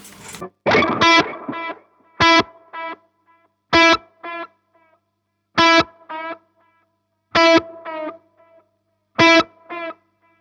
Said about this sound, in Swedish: sen så är det en grej, nu är det svårt att höra det kanske tillsammans med reverbet, mm. men du har ju lite modulation på, ja. eh, på delay-studsen. Jag kan överdriva den en gång.